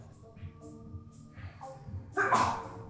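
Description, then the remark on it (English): A single sudden sneeze bursts out near the end, loud, rising sharply over a quiet, steady background hum before fading. “Bless you.”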